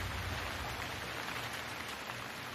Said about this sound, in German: Nimm tiefe Atemzüge und nimm die Musik des Regens und des Gewitters in dir auf.